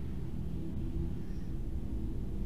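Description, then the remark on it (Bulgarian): A low, steady rumble of an airplane flying overhead in Sofia, droning continuously at a muted level with no voices. “ако чувате на заден фон нещо, това беше самолет, който прелита над нас.”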